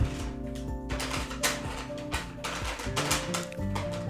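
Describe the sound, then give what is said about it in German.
A cat paws and bats at a plastic bag, producing irregular crinkly rustling bursts and light taps over a faint steady hum, with no voices. “das Geräusch, was ihr gerade hört, ist die Katze, die an einer Tüte spielt.”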